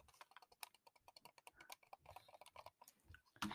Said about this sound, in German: Erstmal Mausklicker. Hört ihr das Mausklickern?